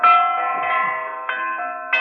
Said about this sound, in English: Listen to those bells! Yes, Watson, something's gone wrong.